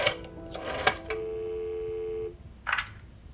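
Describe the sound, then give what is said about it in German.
A telephone receiver is lifted with a clatter as Dieter Schwarz picks up the phone after learning that East Germany's border crossings have opened. A steady dial tone hums for about a second before cutting off, followed by a short burst of handling or dialing noise, clear. “Er greift zum Telefonhörer.”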